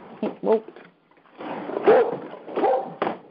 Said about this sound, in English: oh, oh, my dog's barking. Oh, hang on, I'm just going to let him out.